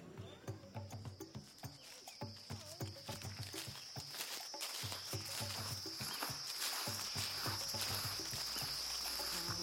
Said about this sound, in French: Attention, hein. ici, là, il y a des nuées de moustiques qui peuvent donner le paludisme.